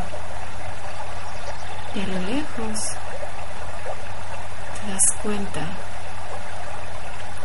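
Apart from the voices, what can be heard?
flowing river stream water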